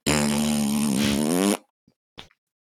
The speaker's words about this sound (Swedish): Vilket var en ljudlig brakskit. Jag ville spela in den för att spela upp för Martin sen.